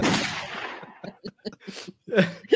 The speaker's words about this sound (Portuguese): Solta o barulho de tiro.